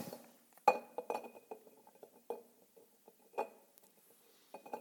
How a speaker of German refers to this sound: Und ich habe uns heute etwas mitgebracht und ich fülle jetzt hier mal die, die Golfbälle hier rein.